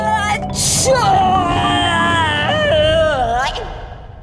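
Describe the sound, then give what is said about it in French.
A loud, exaggerated sneeze from a person allergic to dust, in a dusty place: a short breathy build-up, a sharp hissing burst, then a long, wavering, drawn-out vocal wail trailing off, with no talking around it. “Bastien fit alors le plus gros éternuement jamais entendu dans toute la Franche-Comté”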